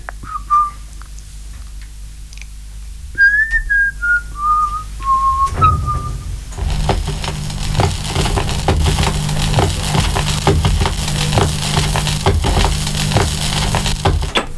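A person whistles a short, clear tune of stepping, descending notes for about six seconds, then a loud, dense crackling and crushing noise takes over for the rest.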